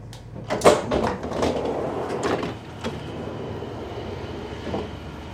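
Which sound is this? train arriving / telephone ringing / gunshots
train arriving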